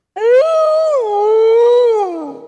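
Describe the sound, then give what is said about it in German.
A single wolf howl rises quickly, holds a long wavering tone, then slides downward and fades, lasting about two seconds. It sounds loud, with no other sounds around it. “Der Wolf.”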